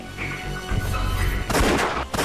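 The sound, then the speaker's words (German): A single loud, sharp, fatal gunshot cracks out over a low rumbling background, its noisy tail ringing and echoing briefly before a second burst of noise follows near the end. “Es war nur ein Schuss, aber tödlich.”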